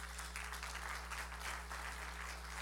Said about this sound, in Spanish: Nunca, dale una aplauso fuerte, Señor, solo fuerte al Señor.